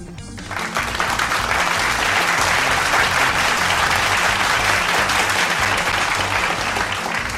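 Sustained applause from a sizable crowd, dense and steady clapping that swells in quickly after a brief quiet start and stays loud and even throughout.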